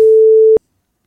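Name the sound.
telephone ringing tone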